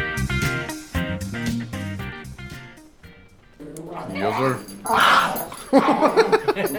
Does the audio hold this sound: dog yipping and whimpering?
yes